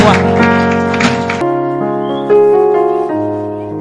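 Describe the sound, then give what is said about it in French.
A church audience at a morning service claps for God, the king of kings, over sustained keyboard or organ chords. The applause fills the first second and a half, then stops, leaving the steady chords ringing on alone. “Est-ce qu'on peut applaudir ce matin pour le roi des”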